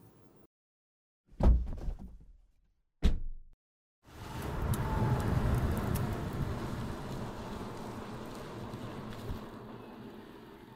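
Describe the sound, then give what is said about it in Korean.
Two sharp thumps, then a combustion-engine car rumbles to life and keeps running with a steady, loud, gravelly engine drone as it passes on the street, giving off exhaust fumes. No one speaks. “이 소리는 기후 위기를 심화시키는 내연기관차가 매캐한 매연을 뿜으며 지나가는 소리입니다.”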